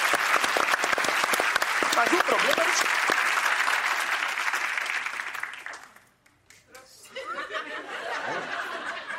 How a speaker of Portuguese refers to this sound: É, aplauso demais também.